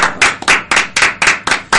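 Applause made of sharp, steady hand claps, about seven loud claps at an even brisk pace, with no talking over them.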